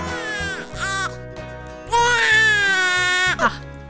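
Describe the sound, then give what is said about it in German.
A newborn baby, born two days earlier, cries in two long, wailing bursts with a short pause between them, then a brief final squeal. The crying is fairly loud, with no one talking. “Eine Sache noch wird ist, seit vorgestern gibt es ein Mitglied der Schulgemeinschaft mehr.”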